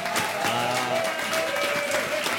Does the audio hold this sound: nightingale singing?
no